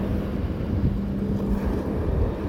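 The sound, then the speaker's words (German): Steady wind blowing on a sandy beach by the sea, a constant low rumbling roar with gusty buffeting that stays loud throughout, with no voices present. “Wind. Er zerzaust meine Haare, pustet mir ins Gesicht”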